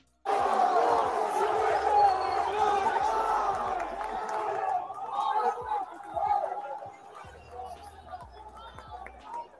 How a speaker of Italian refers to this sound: vi faccio sentire la reazione dei tifosi dell'Ecuador a Milano. Ma come a Milano? A Milano, sì. in piazza Gaolenti.